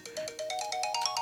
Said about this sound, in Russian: Оп, это мой будильник напоминает, что вот сейчас конкретно 2 часа наступило, и время мне идти на тренажер.